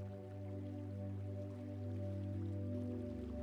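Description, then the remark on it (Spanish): Steady rushing water like a waterfall pouring into a lake, a continuous soft wash of splashing noise blended beneath a sustained, humming musical drone, with no talking. “El sonido del agua, de la cascada que cae en la inmensidad del lago.”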